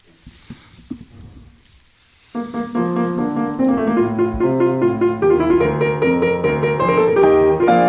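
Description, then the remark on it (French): After a couple of seconds of faint shuffling and clicks, a classical piano sonata starts up loudly and plays on steadily, with busy, ringing notes and full chords. “ce que vous venez d'entendre, c'est une sonate de Clementi”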